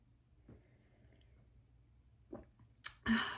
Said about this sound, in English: Okay, real quick, coffee sip.